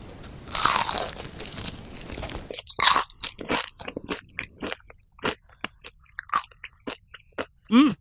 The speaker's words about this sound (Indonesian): jadi kita, di, dikasih semacam hidangan kulit ayam gitu di crispyin dan aku coba rasanya nih ya